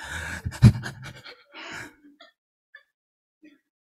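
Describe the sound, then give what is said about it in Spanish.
A voice imitates the heavy panting of people praying, a quick run of loud, breathy gasps for about two seconds, then trails off into near silence with a few faint breaths. “Y empiezan a jadear y a llorar.”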